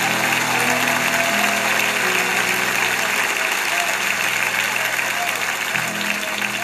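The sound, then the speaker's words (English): A Lakewood audience gives God a hand clap, clapping steadily for several seconds, a dense, unbroken wash of applause at a constant loudness, with faint voices mixed in beneath it. “Let's give God one more great big hand clap”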